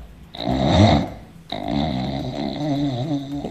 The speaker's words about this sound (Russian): Это Муж, муж у кого-то храпит. Это муж храпит.